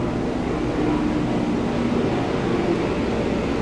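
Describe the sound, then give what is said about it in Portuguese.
A firefighting helicopter passes, droning steadily in a continuous low rumble with a faint tonal hum running through it for a few seconds, with no voices present. “Agora estava a passar um helicóptero da que apaga fogo, olha.”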